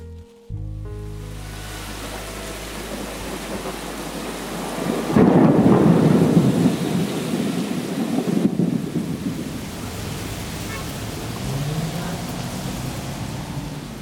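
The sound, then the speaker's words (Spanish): Steady rain hisses throughout a thunderstorm over a city while a deep, rolling thunderclap swells up midway and rumbles on for several seconds before fading back into the downpour. “El pronóstico del tiempo acertó. La tormenta llegó a la ciudad.”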